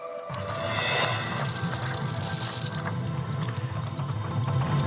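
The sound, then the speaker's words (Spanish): A sonified recording of Earth's magnetic field: a steady, dense rumble layered with hissing and crackling, creaking textures, holding loud and unbroken throughout with no voices. “Y ese sonido que se escucha es el del campo magnético de la Tierra.”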